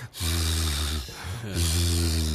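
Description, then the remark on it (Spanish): A voice imitates a sleeping person's soft snoring, a 'Z' sound, with two drawn-out, buzzing breaths separated by a short pause, fairly loud, with no words spoken. “Se supone que el tipo roncaba un poquito, suave, porque era Z.”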